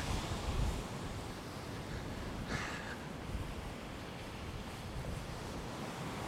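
Steady surf washes in by the sea on a cold July day with a broad, continuous roar while gusty wind buffets the microphone, adding low rumbles and a brief brighter hiss partway through. No one speaks.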